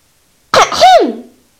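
A single throat clearing before beginning a lesson: a short, rough burst followed by a louder voiced "ahem" that dips in pitch and trails off, heard alone against silence.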